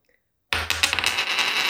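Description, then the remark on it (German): After a moment of silence, a tossed 1-euro coin lands with a sudden bright metallic clatter, then a sustained ringing spin and wobble as it settles on a hard surface, fairly loud. “ich hab hier ein 1-Euro-Stück und wir können ja trotzdem einfach nur aus, aus Jux und Dollerei können wir ja. Kopf oder ähm, Zahl”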